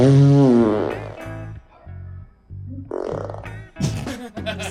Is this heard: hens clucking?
no